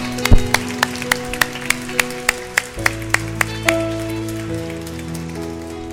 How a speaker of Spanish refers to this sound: Un aplauso para todos los papás, por favor.